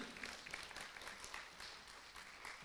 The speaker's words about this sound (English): So let's give Fred a round of applause as we put him away.